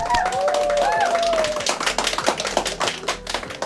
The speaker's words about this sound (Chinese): 我们鼓掌欢迎。